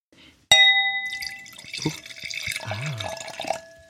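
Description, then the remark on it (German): Wine is poured into a glass, opening with a sharp clink of the bottle against the rim, then a steady gurgling stream with bubbling, rising tones for about three seconds. “So, und nein, das war nicht ich auf der Toilette, mhm. sondern der wunderbare Vino in meinem Glas.”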